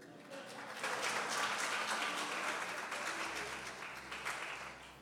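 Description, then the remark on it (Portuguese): An audience breaks into applause, a dense, steady wash of many hands clapping that holds for about five seconds and tapers slightly toward the end. “Nós salmos de palmas para ela.”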